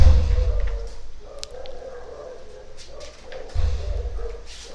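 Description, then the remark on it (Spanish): Dogs bark a few times, short sharp yaps over a low, steady rumble of background noise, with possible murmuring voices. “Los perros, qué típico”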